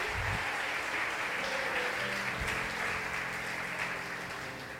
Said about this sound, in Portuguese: Se você crê, aplauda Ele bem forte.